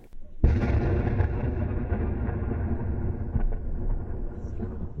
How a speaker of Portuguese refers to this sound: Aqui, um jornalista flagra o momento em que um tanque de guerra israelense atira contra um carro.